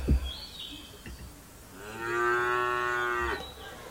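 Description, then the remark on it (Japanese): A cow gives one long, loud moo lasting over a second, with a steady droning tone and a rough edge. A few brief thumps and faint background noise come before it. “はい、ちょっと牛の鳴き声で出迎えさせていただいております。”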